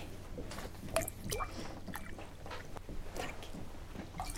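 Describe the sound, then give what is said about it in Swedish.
Red Beaujolais wine gurgles and splashes as it is poured into glasses, a steady liquid trickle with a few brighter clinks and sloshes, and no one speaking. “Vill ni ha lite vin?”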